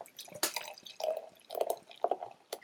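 Beer glugs into a glass in uneven bursts, a gurgling pour with splashes and a few sharper clinks and fizzing hisses between the surges. No one speaks.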